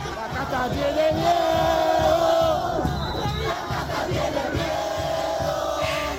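A large crowd of Javier Milei's supporters in Argentina chants and cheers together in a loud, sustained roar, shouting that the political caste is afraid, with rhythmic shouted phrases rising and falling over a dense wash of voices.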